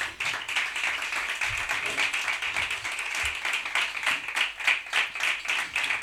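Steady applause from a group, many hands clapping in a dense, crackling patter that holds at an even level for several seconds without speech over it.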